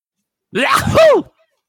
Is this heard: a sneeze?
yes